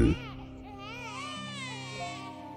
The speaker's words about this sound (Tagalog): Isang gabi, nagising na naman po ako sa malakas na iyak ng mga sanggol.